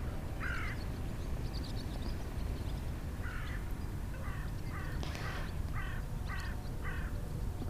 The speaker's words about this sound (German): ja, ich hoffe, diese Folge hat dich heute inspiriert und du hast die Möwen im Hintergrund gehört und hast dich etwas ähm, getragen, gefühlt und motiviert und kannst sehen und fühlen, dass du auf dem richtigen Weg bist.